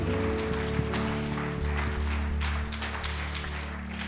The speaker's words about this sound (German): Deswegen würde ich sagen, fetter Applaus für alle, die gestern geputzt haben.